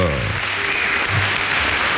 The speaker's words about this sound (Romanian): încă o dată aplauze